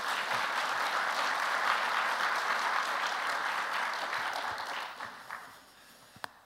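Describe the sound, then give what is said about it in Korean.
A large audience applauds steadily to welcome their pastor coming forward, the dense clapping holding for several seconds before tapering off, with a few last scattered claps near the end. “함께 박수로 우리 목사님 나오시는 거 환영해 주시면 좋겠습니다.”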